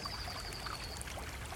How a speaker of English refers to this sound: Then you notice another sound creeping in. It's the sound of water running.